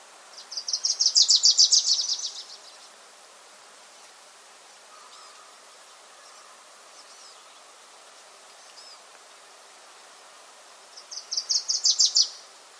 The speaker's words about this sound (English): Once again, that was the Wilson's Warbler singing. Uh, that one recorded at Thimbleberry Lake.